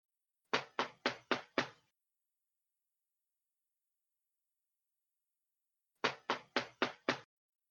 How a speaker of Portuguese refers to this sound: Caraca, tá tem alguém em casa? Não, Bom, vai ter. eu tá acho que estão batendo minha... na porta. Querida, é... você, você quer que eu atenda?